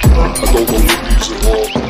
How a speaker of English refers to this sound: What do you hear? I hear the water.